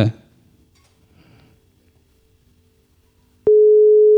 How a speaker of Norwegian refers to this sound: Nå ringer det.